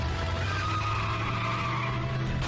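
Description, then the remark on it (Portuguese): A getaway car skids with a steady, drawn-out tire squeal over a low engine roar, loud, holding for a couple of seconds with no voices. “Impressionante, não se fazem mais carros de fuga como antigamente.”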